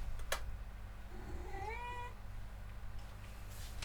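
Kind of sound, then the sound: animal, cat meowing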